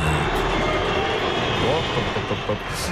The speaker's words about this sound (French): Des sifflets dans le stade à chaque ballon touché et même Neymar en a fait les frais. Le voici prêt à frapper un coup franc et donc chambré par ses supporters.